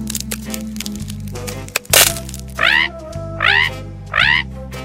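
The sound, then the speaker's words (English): Dinosaur eggs crack open with a few small clicks and one sharp, loud snap, followed by three high, rising squeaky chirps spaced about a second apart over a low steady hum. “One day, the eggs cracked.”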